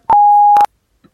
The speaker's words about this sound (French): tu peux me laisser un message après le bip sonore.